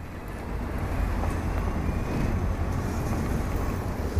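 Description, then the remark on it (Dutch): A steady wash of busy city street traffic with a deep engine rumble underneath, on a road to a train station on a warm early morning, fairly loud, continuing without a break and no voices. “Ik slinger tussen auto's en uitlaatgassen over een weg naar het station.”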